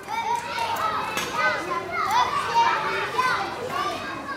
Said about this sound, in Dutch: Ik sta op het schoolplein waar ik zelf zo'n 20 jaar geleden ook speelde. De kinderen rennen door elkaar in de kleine pauze.